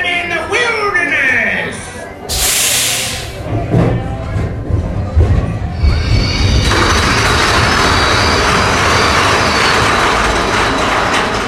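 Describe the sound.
A roller coaster train rumbles and clatters loudly along its track, with a burst of hissing air brakes partway through as it brakes hard in the station, and a steady roaring rush as it gathers speed; people talk over it.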